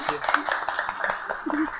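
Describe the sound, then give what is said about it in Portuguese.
An audience breaks into quick, scattered applause, a dense patter of claps at moderate volume, while voices talk and call out over it. “Passava de palma aí, rapaziada.”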